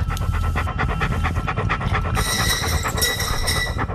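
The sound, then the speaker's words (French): A dog pants rapidly and steadily during a forensic examination of sealed evidence, each quick breath rasping loudly and continuously over a low rumbling background, with no voices. “Car lors de cette analyse, le chien va avoir un comportement déroutant.”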